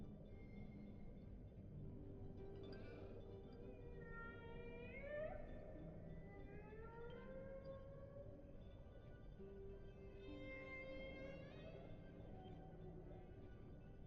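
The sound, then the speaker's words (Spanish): Humpback whale song with long, sweeping moans and rising and falling tonal calls, some upsweeping into higher whistles, unfolding slowly over a constant low underwater rumble. Such songs can last for hours and carry up to 1600 kilometres through the ocean. “yubarta, también llamada ballena jorobada, se caracteriza por tener unas aletas más largas y una cabeza nudosa emite largos cantos muy característicos que se pueden prolongar durante horas y escuchar en los océanos hasta 1600 kilómetros de distancia.”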